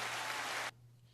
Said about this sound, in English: had to give you a clap for that.